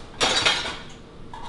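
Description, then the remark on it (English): Dry cereal pours into a small bowl in a quick rattling cascade that lasts under a second, then fades to a few faint settling ticks. No one speaks. “You poured it right amount, dude.”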